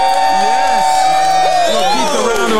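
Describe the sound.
A loud crowd at the Rockstar Culture Labs in Atlanta, Georgia cheers and whoops, many voices overlapping in rising and falling shouts, with applause blended into the steady roar for a few seconds.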